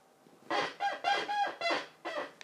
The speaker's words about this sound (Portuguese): E a minha cadeira geme todos os dias, nunca quero.